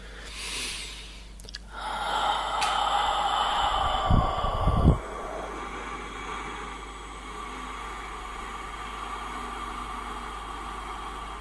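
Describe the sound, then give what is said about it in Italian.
A forceful breath blown out without any voice during a breathing exercise, an airy rush with no resistance in the throat, fading into quieter breathy noise with a couple of low puffs of air. “Capite che senza un suono opportuno fare la stessa cosa col respiro diventa quasi impossibile, no? Cioè non abbiamo nessuna resistenza in gola e quindi il, il respiro viene fuori di brutto, insomma, sostanzialmente.”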